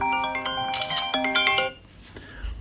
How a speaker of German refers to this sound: Aber ja, das Telefon klingelt ununterbrochen.